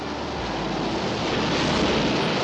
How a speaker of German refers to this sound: Bei dem Sturm können die uns nicht abholen, Harry.